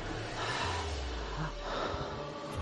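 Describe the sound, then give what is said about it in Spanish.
A voice imitates someone breathing heavily, a continuous breathy, rasping sound with a few snort-like catches, steady for the whole moment, with no words spoken. “Me dice, escuché el audio que usted mandó y se escuchaba a alguien respirando detrás mío, como si estuviera diciendo.”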